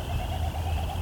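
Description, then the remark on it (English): A great horned owl's deep, low hoot drones steadily for about a second, moderately loud, over a faint high background hiss of night ambience. “Occasionally, great horned owl.”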